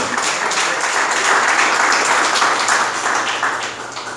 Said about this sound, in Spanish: Déselo al Señor si se lo va a dar ese aplauso.